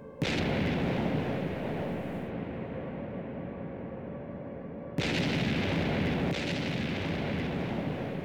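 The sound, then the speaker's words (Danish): A loud, continuous roar of bombardment of Bornholm by Soviet bombers, with heavy explosions rumbling one into another and a fresh, sharper blast surging in partway through. No voices are heard. “Bornholmerne kryber i skjul for de faldende bomber.”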